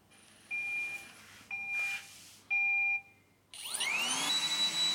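A robot vacuum cleaner, started from an app on a mobile phone, plays a short three-note electronic start-up chime announcing that it begins vacuuming, then its motor whirs on loudly with a rising whine, with no one talking.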